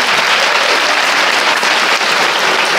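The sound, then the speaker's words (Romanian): A crowd applauds steadily, a dense wash of many hands clapping at an even, loud level throughout with no voices standing out. “Măi, dacă mai aplaudați mult, mă faceți un fundamentalist ortodox.”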